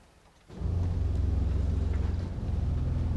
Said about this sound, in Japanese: えっと、ペダルがありまして、はい、足鍵盤ですね足鍵盤の音が一番低い音になってますので足鍵盤を弾いています、はい、一番低い音ですかなり重みのある感じで振動が伝わってきますねここにいると